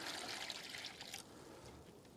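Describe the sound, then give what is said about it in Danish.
Water is poured steadily into a tub to hold small fish caught with a net, a broad, splashy hiss that is brightest in the first second, then settles into a softer, continuous trickle. “Se, nu hælder vi lidt vand op, op, i, op i barken her.”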